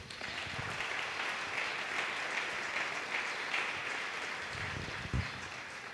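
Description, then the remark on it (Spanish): An audience gives a loud applause to the Lord, clapping steadily for several seconds in a dense, even wash of many hands with no pauses, with a few faint low murmurs or shouts rising briefly near the end. “Quienes quieran ver ese cambio, denle un fuerte aplauso al Señor.”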